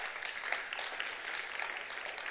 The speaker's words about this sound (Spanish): Puede dar un aplauso al Señor en esta hora.